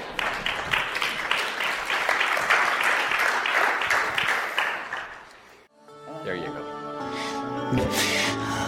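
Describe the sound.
An audience applauds with steady, dense clapping for about five seconds, then the clapping cuts off abruptly and a voice begins speaking.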